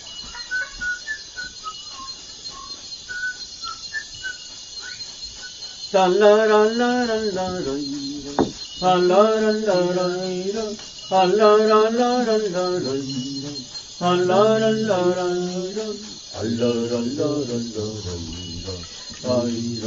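Dense rainforest insect chorus hums steadily and loudly throughout, with faint chirps early on. After a few seconds, a close voice begins singing a slow, wavering chant over the constant buzzing.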